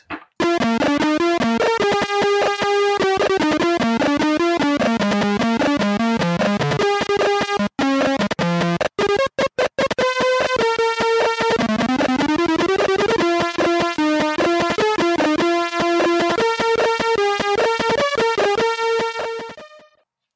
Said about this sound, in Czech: jo, hele, ještě pustíme jednu skladbu z toho 48-kilového spektra